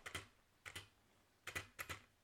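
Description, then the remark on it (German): Four presses of the spacebar on a modded keyboard, each a quick double click of press and release, spaced unevenly with short quiet gaps between them and no talking. “Und die Leertaste?”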